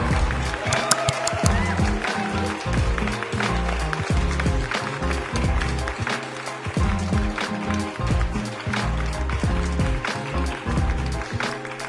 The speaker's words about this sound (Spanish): A ver, un aplauso pues para mí.